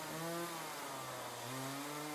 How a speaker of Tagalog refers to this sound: Maghapong puro tunog ng chainsaw ang umuugong sa kakahuyan at pagbagsak ng mga putol na puno.